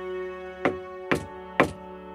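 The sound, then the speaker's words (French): Three firm knocks on the wooden door of a castle drawbridge gate, evenly spaced about half a second apart and distinct, over a steady low humming drone in the background. “Le jeune homme, bien portant, descendit de son grand frison et frappa à la porte du pont-levis.”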